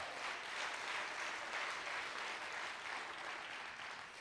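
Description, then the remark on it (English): A crowd claps steadily for about four seconds, a dense, even wash of many hands applauding together at fairly constant loudness with no voices over it. “If you know what I'm talking about, clap your hands right now.”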